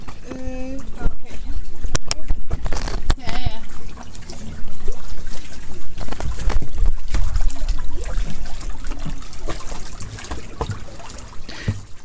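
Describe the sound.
A small boat moves steadily through water, with continuous sloshing and trickling, some brief clunks, and voices talking indistinctly over it.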